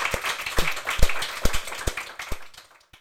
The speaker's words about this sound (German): Ich finde, meine beiden Gäste haben einen herzlichen Applaus verdient.